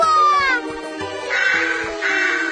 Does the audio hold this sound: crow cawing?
yes